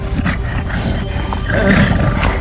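A gorilla, just let out of a cage, roars, a deep, rough, sustained bellow that rumbles for a couple of seconds and swells louder toward the end, with no one talking.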